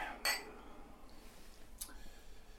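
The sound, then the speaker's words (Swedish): Champagne glasses clink together twice in a celebratory toast, a bright ringing chime followed by a second, softer tap whose high tone lingers briefly, over a faint low background hum. “Låt oss dricka ett glas champagne va?”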